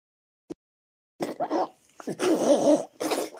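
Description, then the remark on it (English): A female camel calf having a seizure snorts and grunts in rough, breathy bursts, heavy breathing running almost continuously through the second half. A single faint click comes first. Fairly loud, with no talking. “Uh, with that aside, uh, pay attention to the snorting sounds or the grunting and the breathing sounds because the word, uh, the calf or the camel breathing is very specific.”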